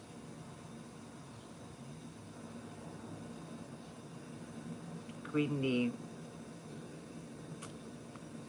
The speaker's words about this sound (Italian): se mio figlio sta passando l'aspirapolvere e mm, dovrebbe venire in questa camera e passarla anche perché io non ce la faccio.